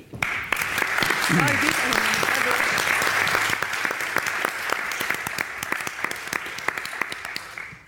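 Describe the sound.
A crowd applauds steadily with dense, crackling claps that swell quickly, hold for several seconds, then gradually thin out; a brief voice or cheer is faintly audible near the start.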